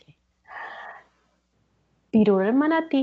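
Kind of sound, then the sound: vocal imitation, voice imitating a sneeze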